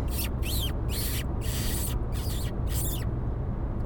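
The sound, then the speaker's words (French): A series of six high, thin kissing squeaks made by kissing and sucking against the skin of a wrist to lure a fox, coming in quick bursts about half a second apart, over a steady low outdoor rumble. No talking. “Donc, pour faire le bruit, comme si bah, tu faisais un bisou sur ton poignet ou alors simplement avec le bruit de la bouche.”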